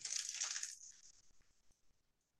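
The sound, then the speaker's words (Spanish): A loud crunch as a crisp snack is bitten near a microphone, a dense burst of crackling that trails off into a few scattered, fainter crunches of chewing. No voices. “A ver, más cerca del micrófono, no se oye el crujir.”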